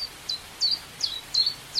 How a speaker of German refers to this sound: Ah, da meinen Sie ganz sicher den Zilpzalp. Das ist ein kleiner Laubsänger, ein graugrüner Vogel